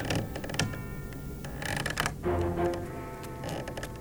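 The wooden, mechanical creak of a guillotine groans in slow, uneven strains, with a few sharper rasping bursts and clanks from the heavy apparatus, with no voices.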